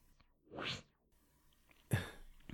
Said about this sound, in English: Can I sniff?